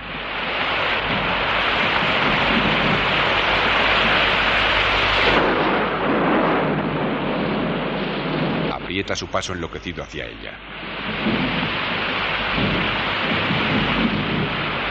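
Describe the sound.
A thunderstorm with heavy rain roars steadily throughout, a loud dense wash with deep rumbling underneath, and a man's voice speaks briefly over it partway through.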